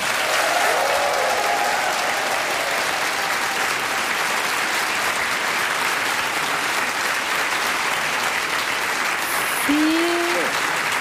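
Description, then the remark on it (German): A large audience at a crime fiction festival in Braunschweig claps steadily and loudly for the whole stretch, a dense, even wash of applause with faint voices and a brief whoop near the end. “Ein Applaus, wo man einen Schuss gar nicht hören würde, wenn jetzt jemand ermordet oh, worden wäre.”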